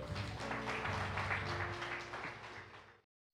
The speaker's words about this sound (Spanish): Amén. Gloria a Dios. Dele un aplauso al Señor.